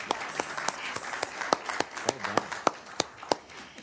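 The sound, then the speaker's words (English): An audience applauds the class of 2016 valedictorian of West Broward High School in Pembroke Pines, a steady wash of many hands clapping with sharper individual claps popping out irregularly above it, sustained at moderate loudness throughout. “Clap for that.”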